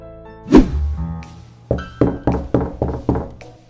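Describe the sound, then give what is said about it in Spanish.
A firm knock lands, then after a pause five rapid, evenly spaced knocks on a door pound out, each a loud thud with a short resonant ring, from someone standing in the cold outside and asking to be let in. No one speaks. “Ah, hazme un favor y abre la puerta.”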